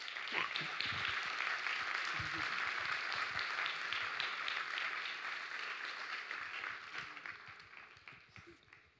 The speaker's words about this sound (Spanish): Denle un aplauso al Señor.